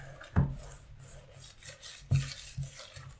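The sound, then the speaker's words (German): A whisk stirs thick brownie batter in a bowl, a steady scraping rub broken by two sharp, loud cracking knocks from the whisk about two seconds apart. “Das Knacken, das war der Schneebesen.”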